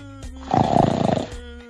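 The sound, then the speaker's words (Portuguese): One loud, rattling snort of breath, like a heavy snore or grunt, lasting under a second, raspy over a faint steady hum, with no talking. “O … que tá no fundo da sala dormindo, só pode ser. Ou respirando normal, né?”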